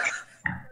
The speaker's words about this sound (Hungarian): mert nagyon fasz frekvencián ugat ez a kutya, tényleg így van brutálisan zavaró engem is. Hát engem zavar a legjobb, én vagyok hozzá legközelebb. Na mindegy, a lényeg az, hogy hát azóta dupla annyit ugat. Tehát mindig ugat.